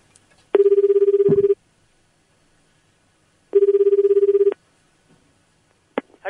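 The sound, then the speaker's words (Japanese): A telephone rings twice as a call is placed again from a regular phone to a tourism office, each ring a roughly one-second electronic trill separated by a short pause, clear with no one speaking. “普通の電話からかけ直すんで、ちょっと待って、もう一回かけますんで。”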